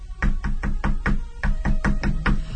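A woman knocks on a judge's wooden door: a steady run of about a dozen firm knocks, evenly paced, with no voices.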